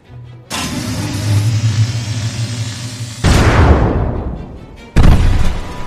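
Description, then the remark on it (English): A low, steady humming drone builds for about three seconds as a weapon charges up, then erupts into a loud, rushing blast as it fires and explodes into Otto's chest, sending bits of Mechanos material everywhere; the blast fades, with a second sharp burst near the end. “You hear it charge up.”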